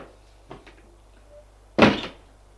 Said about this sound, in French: Suit un couloir et frappe à une porte. Entrez il entre.